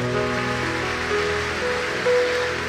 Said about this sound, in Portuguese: Pode aplaudir o Senhor porque Ele é bom.